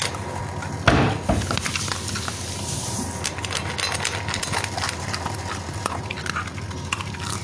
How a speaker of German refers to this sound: wie ihr gerade hört, Jaris knackt gerade seine Leckerli-Stückchen oder Futter halt. Sieht aus wie Leckerli-Stückchen, aber gut.